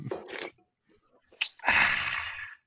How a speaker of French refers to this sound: Ah, c'est parce que je voulais prendre une gorgée.